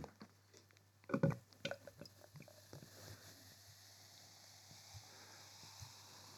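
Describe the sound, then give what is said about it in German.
Beer is poured into a glass: a few clinks and glugs at the start, then a steady, soft fizzing hiss as the foam settles. No one speaks. “Du hast nur nicht gelernt, wie man Bier einschenkt.”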